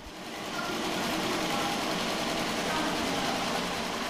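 Knitting machines run steadily inside the workshop of the only knitting firm still operating in Banská Štiavnica, a dense mechanical whirr with a fast, fine clattering rhythm that fades in and then holds at an even, fairly loud level.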